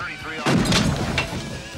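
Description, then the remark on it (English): In a scene from the film Thelma and Louise, a police radio is shot: a loud gunshot bursts out with a harsh, booming crack that rings and crackles briefly, followed by a second, slightly softer shot a moment later. “Louise, shoot the radio.”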